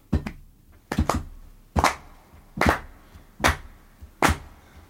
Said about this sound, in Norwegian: Og eh, ja, det begynner jo med litt tromme. Har vi sånn cirka ja. Da må vi rett og slett klappe litt.